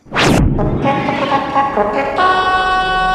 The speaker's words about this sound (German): Was ist das eigentlich für eine Tröte? Das sollte quasi bedeuten, Achtung, Achtung, es gibt jetzt was zu gewinnen.